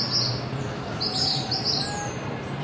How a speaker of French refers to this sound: Dans la cour, les oiseaux se chamaillent autour d'une mangue francisque, elle est tombée ce matin